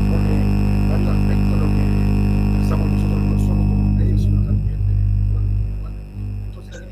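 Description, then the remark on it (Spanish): A harsh electronic hum and buzzing interference, like a bad call connection, with steady tonal whine and garbled, distorted fragments of a voice breaking up underneath, the buzz shifting toward the end. “No se te escucha. Se te fue el no escucha. No. Se te escucha con interferencia.”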